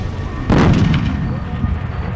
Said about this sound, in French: un bruit étrange, comme une explosion qui retentit à des kilomètres à la ronde. Mais qu'est-ce que c'est Juste en dessous de ce boucan d'enfer, un petit peu effrayant, il faut bien le dire,